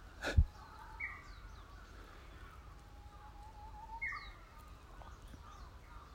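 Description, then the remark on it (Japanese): A Japanese bush warbler sings early in the season, a drawn-out whistle followed by sharper, quicker notes, faint over a soft outdoor hush, with a single sharp knock near the start. “ウグイスガもいろいろ入っちゃってると思いますけど普通ほーほーほけっきょけっきょけっきょけっきょけっきょみたいなじゃないですかいや一般的で、まあ、正直ちょっと今早い時期なんでちょっとほーほけっき結け結き結け結きょけみたいな感じが練習不足でうまくやれてない可能性はあります”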